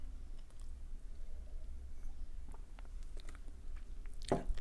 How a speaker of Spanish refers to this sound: Es ASMR, beber café.